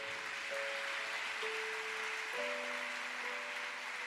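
crowd, audience applauding

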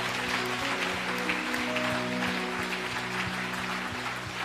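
crowd, audience applauding

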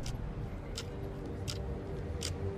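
household object, clock ticking

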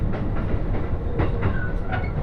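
vehicle, train running on rails

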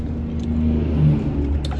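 vehicle, truck engine revving

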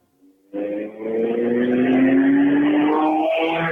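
vehicle, motorcycle passing by

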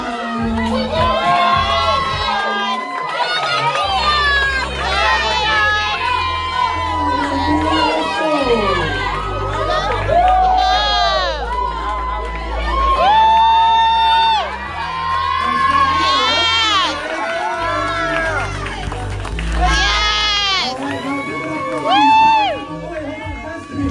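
crowd, crowd cheering

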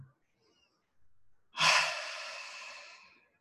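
human body sound, deep breath in nose

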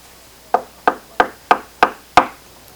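household object, knocking on a door

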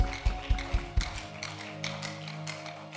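crowd, audience clapping hands

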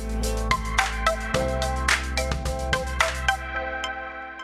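signal or alarm, phone call ringing tone

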